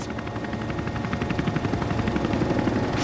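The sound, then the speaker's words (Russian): Military attack helicopters thunder overhead during a parade featuring Mi-26, Mi-8, Mi-35, Ka-52 and Mi-28N helicopters, their rotor blades producing a loud, steady rhythmic chop that fills the whole scene with no voices. “Да, но ну вот мы слышим сейчас, как они летят.”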